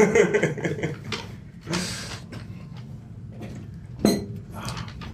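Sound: glasses clinking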